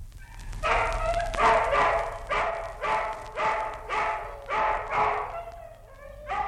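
Dogs bark in a steady run of about eight sharp, fairly loud outbursts, with a low rumbling hum underneath and no talking.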